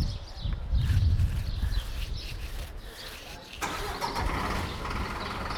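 A truck engine cranks and turns over beside a preserved section of the old city wall, its low rumble surging loudly before settling into a steady idle, with faint birdsong in the background.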